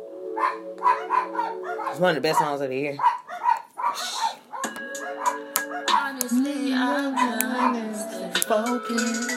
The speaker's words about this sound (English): sorry about the dogs that were just barking